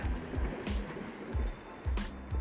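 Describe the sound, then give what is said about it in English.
Lake water laps and splashes against the shoreline in a quick series of soft, low slaps over a steady watery hiss, fairly quiet, with no voices. “As I stand by the lake listening to the water crashing on the shoreline”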